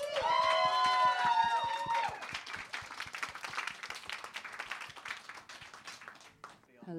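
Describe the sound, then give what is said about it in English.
A crowd welcoming a performer onto the stage applauds with dense, steady clapping, joined at the start by loud high-pitched whoops and cheers that fade after a couple of seconds while the clapping carries on. “Make some noise!”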